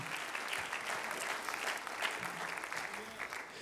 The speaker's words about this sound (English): Why don't we give the Lord a hand clap of praise for the Word of God?